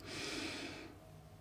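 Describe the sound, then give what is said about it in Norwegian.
A single deep breath drawn in through the nose during a breathing exercise, fairly loud, a broad airy rush lasting under a second before it fades into quiet. “Og siste gang på innpust”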